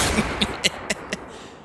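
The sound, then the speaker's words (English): Opening of wrestler Eddie Guerrero's entrance theme: five sharp, punchy hits in quick, even succession, each a loud burst like a gunshot, over a low rumbling background with no voices. “Shout out to the legend I'm going to play right now.”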